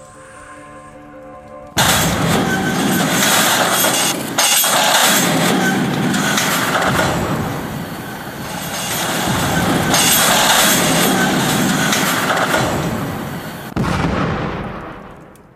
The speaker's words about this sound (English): The rest of the War Metal Express screamed past Malone. War Metal looked up to see the black snake of train cars bearing the golden W of his empire as it all came crashing down.